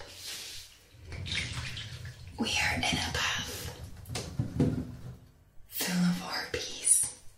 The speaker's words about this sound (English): We are in a bath, not just any bath.